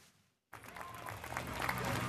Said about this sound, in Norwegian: tre fulle saler og applaus for Tommy Wirkolas Hollywood-debut.